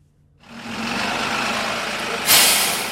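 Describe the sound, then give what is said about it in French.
A large city bus engine rumbles steadily, then a loud hiss of air brakes bursts out near the end and slowly fades back into the idling drone. “On rentre dans le bus, les mains dans les poches, par la porte avant ou arrière comme on veut”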